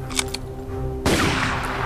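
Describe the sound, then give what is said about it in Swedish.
A couple of sharp cracks, then a sudden loud burst of overlapping rifle shots fired together as a volley by Red troops executing prisoners, the blast rolling on with a noisy echoing tail. No voices. “I detsamma sköt de röda en skottsalva.”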